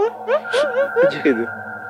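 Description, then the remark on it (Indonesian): A television plays in the front room, its voices rising and falling in short bursts over a faint steady hum, somewhat muffled and at moderate volume. “Itu Itu suara TV depan ya, Oke.”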